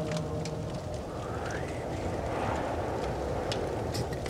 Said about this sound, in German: die, diese, diese pfeifenden Geräusche der Luft. Achte die Wand. Da ist, ein, ist ein Windzug. Da zieht es irgendwie durch, vom Inneren.